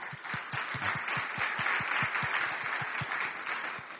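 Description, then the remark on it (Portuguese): An audience breaks into steady applause for soldiers linked to the UN who are present. Many hands clap in a dense wash, with some sharper individual claps standing out, holding a fairly even loudness for about four seconds. “Aliás, eu peço uma salva de palmas para eles.”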